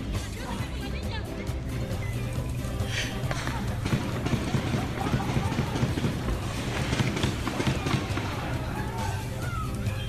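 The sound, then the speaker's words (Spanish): Many hurried footsteps of people running away from a park, a dense, steady patter mixed with crowd hubbub and scattered voices, loud for the whole stretch. “Cuando vienen corriendo del parque.”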